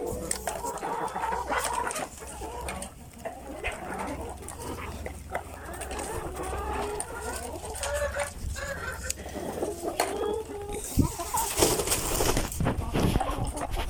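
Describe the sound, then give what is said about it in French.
Chickens cluck and chatter continuously while pecking at feeders, with scattered pecking and scratching noises, a low steady hum underneath and a burst of rustling toward the end. “Bon, ben ça picore dans hein, les mangeoires.”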